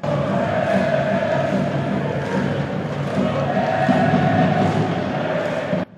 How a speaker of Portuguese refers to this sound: Magalhães tenta o pombo sem asa e é aplaudido pela torcida Guaragolo que se faz presente. Pelo menos 60 pessoas, parece, né?